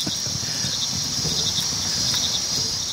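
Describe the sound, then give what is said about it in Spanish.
A dense chorus of crickets chirping steadily in a high, continuous pulsing trill, with a faint low rumble underneath and no talking. “Los grillos o un 127 al ralentí.”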